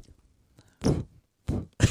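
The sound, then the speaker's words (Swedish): A voice imitates puffing with three short, breathy bursts of air; one puff, a pause, then two in quick succession. “du får göra puffande ljud.”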